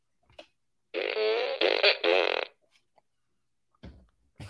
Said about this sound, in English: Cue the fart gun.